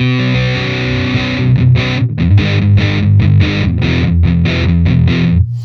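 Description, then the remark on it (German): Heavily fuzzed electric guitar chords ring out in a steady rhythm: a long opening chord, then a series of short, choppy strums with brief gaps, thick and saturated, with no voices. “Für Single Notes mache ich das ganz gerne, für Akkorde zum Beispiel.”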